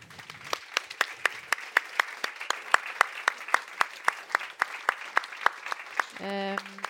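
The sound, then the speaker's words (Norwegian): Audience applause thanking departing speakers at a panel event, with sharp, evenly spaced claps over a dense wash of clapping, holding steady for about six seconds before a brief voiced sound cuts in at the end. “Gi dem en stor applaus.”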